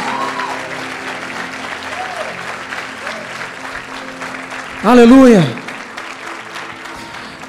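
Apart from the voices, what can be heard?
audience applause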